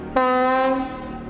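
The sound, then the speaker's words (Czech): A locomotive horn blares suddenly at a small railway station in the Libavá military area, Olomouc region, Czechoslovakia, as a train carrying Soviet military equipment slowly starts moving; a loud, sustained harmonic tone holding steady for about a second before starting to fade, with no voices present. “Teď už zazněl malým nádražím klakson lokomotivy.”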